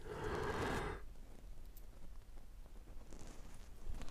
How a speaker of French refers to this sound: Le fameux bâillement.